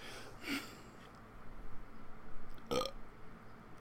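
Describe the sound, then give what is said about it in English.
A pair of short, throaty burps, the second slightly stronger, separated by a couple of seconds of quiet with no talking. “All I do is have to burp.”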